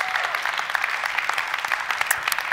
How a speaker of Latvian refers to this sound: Aleluja! Dosim viņam aplausu!